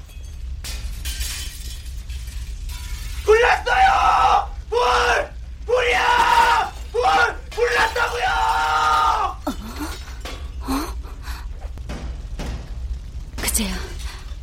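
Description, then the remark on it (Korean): Loud, strained shouting and screams ring out in several bursts outside an apartment building, mixed with crashes of window glass breaking, followed by quieter scattered cries and a final sharp shattering near the end over a low rumble. “아파트 밖에서 누가 내지르는 고함과 유리창 박살나는 소리가 들리더라.”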